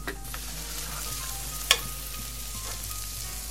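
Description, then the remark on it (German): Onions fry in a pan for a jambalaya with a steady, bright crackling sizzle, broken once by a short, sharp clack of a utensil against the pan midway through. “Okay, wir braten heute die äh, Zwiebeln.”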